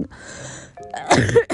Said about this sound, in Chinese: 对，不好意思。我就是不由自主的打了一个喷嚏，但是我应该也没有把，也不想就懒得把它剪掉